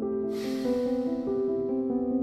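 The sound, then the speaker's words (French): A long, soft exhalation during a guided breathing exercise, a breathy hiss that swells quickly and then slowly fades over a couple of seconds, heard over a steady, sustained musical drone. “Expire.”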